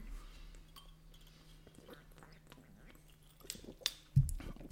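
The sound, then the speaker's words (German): Beer bottles clink together once in a bright toast, followed by a soft thump of handling and quiet mouth sounds against a low, steady background hum. “wenigstens kann der Quark nicht wegfliegen. Prost.”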